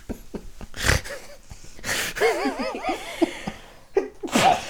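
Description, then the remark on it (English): A woman lets out a few sharp, noisy sneezes, separated by short pauses, with bouts of breathy laughter bubbling between them. “and she always says no, and then she always sneezes as soon as we come back to the next topic.”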